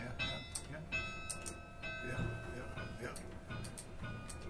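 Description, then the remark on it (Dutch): A swung bell rings with repeated, irregular strikes whose long metallic overtones overlap and hang in the air, set against a steady low rumble of room noise. “Ja, je moet er wel een slinger aan geven.”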